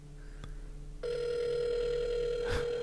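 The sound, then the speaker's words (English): A steady electronic phone tone starts abruptly after a faint click and holds at an even pitch, with a brief burst of noise near the end; nobody speaks. “He's not going to answer now.”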